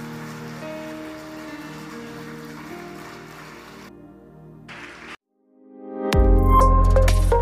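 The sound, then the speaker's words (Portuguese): An audience applauds the Lord steadily over soft sustained music, the clapping thinning out before a short silence, then a loud burst of music swells in. “Pode aplaudir o Senhor.”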